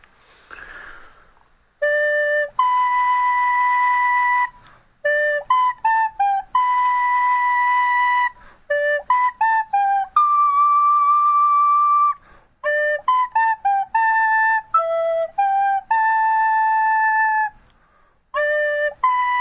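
A flute plays a short melody alone, a mix of sustained held notes and quick stepping runs, clear and fairly loud, with brief pauses between phrases.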